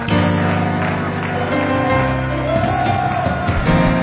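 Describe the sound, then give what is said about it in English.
An audience shouts and cheers loudly together to God in triumph, a dense, sustained roar of many voices that stays steady for the whole moment, with a tonal backing underneath. “Somebody shouting to God with the voice of triumph.”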